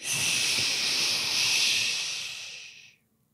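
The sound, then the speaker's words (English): A single long, steady "shhh" shushing sound, loud and breathy, held for about three seconds before cutting off into silence, with no talking over it. Someone is being shushed as a penalty for telling a bad story. “for telling a bad story, the people that are that had to listen to you for those 13 busted ass seconds of your story get to shush you.”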